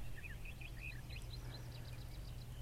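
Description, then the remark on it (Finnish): A common quail calling in a series of short, high chirping notes over a steady low rumble, the bird sounds fairly faint and repeated without a strict rhythm. “Viikon luontoääni: Viiriäinen”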